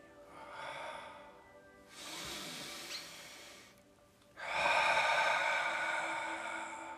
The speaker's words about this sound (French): Inspiration profonde et complète, contraction des muscles du périnée. En expirant puissamment, on rentre le nombril, on se grandit, on relâche le périnée bien sûr pendant l'expiration et on éloigne les épaules des oreilles.